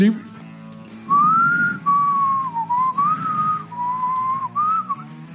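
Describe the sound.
A person whistles a wavering tune, several sustained notes gliding up and down in short phrases over a low background hum.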